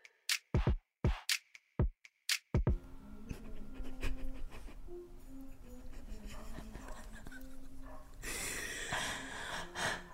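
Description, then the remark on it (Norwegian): A dog pants and snorts in a quick burst of short, sharp breaths, then gives way to a steady low background rumble and faint rustling. “den jævla hunden.”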